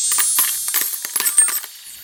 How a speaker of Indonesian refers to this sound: Mereka lalu mengeluarkan akar-akar yang berat sekali satu persatu. Isinya apa ya? Oh, ternyata isinya koin-koin emas. Wow!